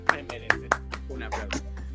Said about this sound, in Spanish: Excelente, la verdad quedé sorprendido de ustedes dos, primero los, los conocimientos que tienen y cómo lo explicaron, la verdad increíble, la verdad es un aplauso, se merece.